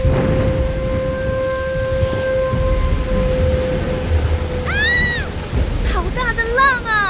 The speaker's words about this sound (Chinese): 由于龙先生一直都是住在海底，他掌管了大海还有天气，所以制造一点大风大浪对他来讲实在是太简单了啊。